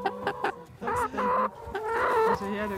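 A brown hen clucks in a run of short bursts, rising into longer, louder drawn-out cackles with a steady, insistent rhythm and no talk over it.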